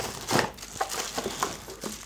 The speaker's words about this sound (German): ich klappe jetzt hier einfach mal auf. Aha, ja, hier, schöne Aufmachung. Ja, viel Papier.